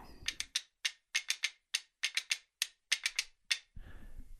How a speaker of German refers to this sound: Zwei Holzscheite mit Schlaufen dran, die er so ähnlich hält wie Becken. Die klingen dann so.